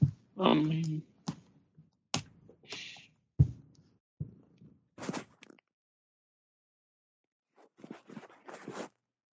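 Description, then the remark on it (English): A cat walks across a computer keyboard, typing into notes, producing irregular clacks and soft thumps of keys, a scattered run of presses, a pause, then another brief cluster of clicking. “Sorry, my cat is typing into the notes.”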